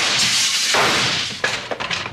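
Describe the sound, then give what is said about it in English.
A gunshot fired at a person bursts through a window, a loud noisy blast followed by a few sharp tinkling crashes of breaking glass scattering. “some Jasper shot at me through the window and knocked my doggone hat off.”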